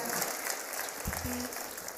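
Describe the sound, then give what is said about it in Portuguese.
An audience applauds the Lord steadily after a prayer, a dense wash of many hands clapping at once, fairly loud and continuous throughout, with a brief low thump partway through. “Você pode mais uma vez aplaudindo ao Senhor, se assentar no seu lugar.”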